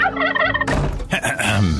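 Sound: turkey gobbling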